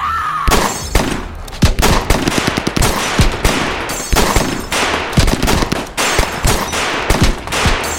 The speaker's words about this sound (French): six hommes de Frank Heimer se mettent à tirer tous ensemble. Ils vident leur chargeur, rechargent et tirent à nouveau.